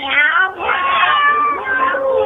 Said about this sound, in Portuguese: E nessa hora, amiguinhos, o gato se enfureceu e chamando os companheiros,